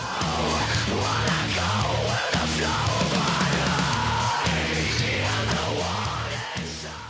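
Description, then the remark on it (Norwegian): A loud heavy metal jazz band plays live, a dense wall of distorted sound over a pounding, repeating low riff that pulses steadily throughout, intense, with no talking. “is an interesting combination of kind of musical prowess, kind of heavy metal, jazz, and getting your ears pounded and your chest pounded as well at the same time.”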